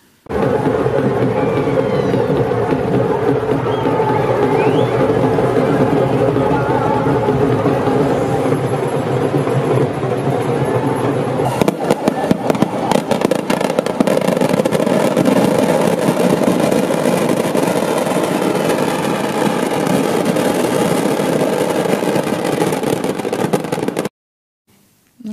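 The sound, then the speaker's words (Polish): A dense, loud crowd at the Dussehra festival in India roars continuously while firecrackers pop and crackle throughout, the bursts growing busier in the second half before everything cuts off abruptly. “rzeczywiście widzimy wiele, no, no masa ludzi, można no, powiedzieć, w, kolory, petardy, w Europie hałasy.”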